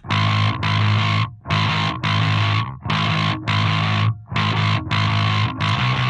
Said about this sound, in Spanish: Esto es porque estaba por retroalimentarse el amplificador, o sea, cuando hace, cuando se llama, que le dicen que se vicia. Eh, pero aquí, como lo cortábamos al momento, evitaba que pasara eso de tanta distorsión que tenía el bajo.